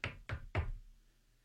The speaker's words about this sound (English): And part of the reason I say that is and please grab whatever piece of wood you have available and knock on it thoroughly.